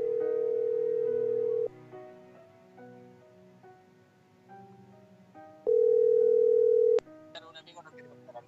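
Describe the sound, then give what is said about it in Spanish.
Outgoing phone call tone from a radio show calling a listener: two long, loud, steady mid-pitched beeps, each over a second, separated by a few seconds of quieter sound, with faint background music underneath. “Una amiga nos quiere contar, un amigo nos quiere contar algo, ahí estamos llamando.”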